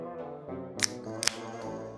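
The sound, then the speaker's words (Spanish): Drink can number one pops open in front of the microphone: two sharp metallic clicks about half a second apart, heard over a steady humming, tonal background. “Eh, eh, venga, eh, vamos con la lata número uno, por favor, a ver cómo suena. Ábrela ahí delante del micrófono, a ver cómo.”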